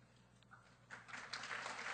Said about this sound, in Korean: 박수로 격려해 주십시오.